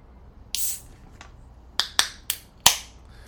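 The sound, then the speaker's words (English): A 500 milliliter aluminum can of Asahi beer cracked open: a brief fizzy hiss followed by several sharp, snappy metallic clicks in quick succession, with no talking. “I have decided to crack a 500 milliliter can of Asahi.”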